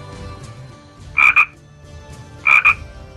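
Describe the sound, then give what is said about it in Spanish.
Frogs croak in two short double bursts, each a quick pair of bright, throaty calls, separated by about a second of quiet low background hum. “hacían como ranas.”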